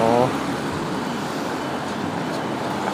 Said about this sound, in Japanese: めっちゃ車来ますね